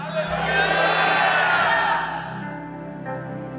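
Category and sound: crowd, audience shouting hallelujah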